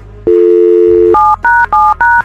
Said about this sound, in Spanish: Vamos a marcarle a la mamá.